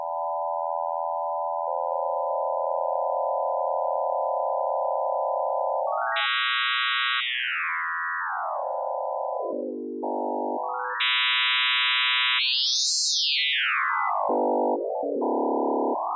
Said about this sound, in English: And then in 1996, when Ligeti was a guest here at the conservatory, we made a digital realization of that uh, score in, in Csound.